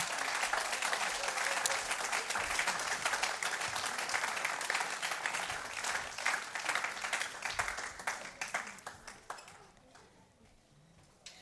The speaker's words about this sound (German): Ganz herzlichen Applaus für die zwei Familien.